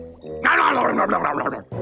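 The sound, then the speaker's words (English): Wet, squelchy chewing on sticky glue candy by Shark Pirate, voiced as a rapid gurgling, smacking flurry after a brief hum, like a person imitating messy mouthfuls. “Shark Pirate grabbed the candy, tossed it into his mouth, and started chewing it.”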